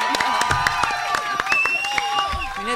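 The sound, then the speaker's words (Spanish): An audience applauds with a steady, uneven patter of many hands clapping, mixed with some voices and cheering throughout the short burst. “tenemos aplausos.”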